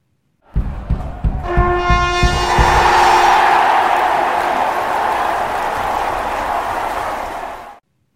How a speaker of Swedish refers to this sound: Trumpeterna bryter ut i sång och publiken exploderar.